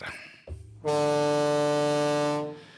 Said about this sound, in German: Wenn ihr im Hintergrund immer mal die Kaffeemaschine gehört habt, die ist gerade am Entkalken.